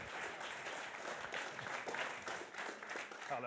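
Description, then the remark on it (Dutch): Audience applause welcoming a guest columnist for the evening: a steady, dense patter of many hands clapping at once, sustained at an even level throughout with no voices standing out. “Warm applaus,”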